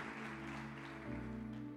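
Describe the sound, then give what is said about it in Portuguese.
An audience at a church service claps steadily to applaud the Lord, a dense wash of applause over sustained organ-like chords that shift pitch midway and swell slightly louder toward the end. “Aplauda o Senhor, aleluia.”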